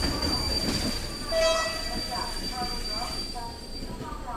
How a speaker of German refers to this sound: Scheppernd schleppt sich der Zug der rumänischen Eisenbahn durch die Dunkelheit.